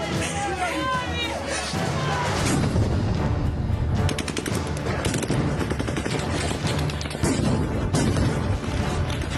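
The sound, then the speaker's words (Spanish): Rapid bursts of gunfire, shots fired into the air, crackle over a noisy protest crowd, with repeated sharp blasts and booms of stun and gas grenades ringing out amid shouting and babble, loud throughout. “Según Rusia, los disparos fueron al aire, no contra civiles. Además, utilizaron granadas aturdidoras y de gas.”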